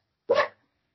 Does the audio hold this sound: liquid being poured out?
no